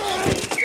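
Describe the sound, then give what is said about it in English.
Football pads collide in a brief crunch: two quick, muffled impacts less than a second apart, over a faint steady background hum. “The collide of football pads.”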